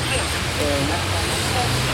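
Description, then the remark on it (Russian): Steady roadside traffic at a bus stop in Sochi: a continuous low rumble of passing vehicles with a broad hiss of road noise, fairly loud and unbroken throughout. “Сегодня, в частности, я оказался на автобусной остановке, используя систему «Говорящий город».”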